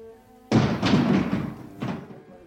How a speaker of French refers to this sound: jusqu'à ce qu'elle entende un bruit sourd, comme un sac qui tombe à terre.